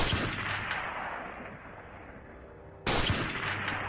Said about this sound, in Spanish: El 6 de octubre de 1988, casi a las 9 de la noche, Cazón se retiró de la pollería donde trabajaba en la esquina de 3 de febrero y Paraguay. Apenas salió, su patrón, Osvaldo Carlos Roy, escuchó dos disparos.